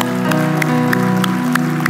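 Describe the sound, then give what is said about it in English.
An audience at a church service claps in steady unison, sharp claps landing about three times a second over a loud, sustained musical drone and a wash of crowd noise. “Come on, why don't we give them a hand clap?”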